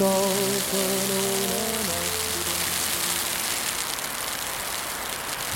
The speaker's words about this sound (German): Ziemlich ekliges Wetter erwartet mich am nächsten Morgen. Eine Mischung aus Nieselregen und dicken, nassen Schneeflocken.